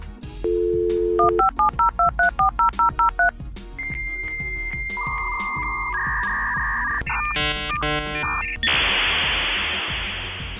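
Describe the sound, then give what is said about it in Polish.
An old dial-up modem connecting: a burst of touch-tone dialing beeps, then screeching handshake tones and warbling chirps that dissolve into a loud hiss of static, with no one speaking. “wklej tutaj dźwięk łączenia się modemu z internetem, takiego starego, wiesz o co chodzi.”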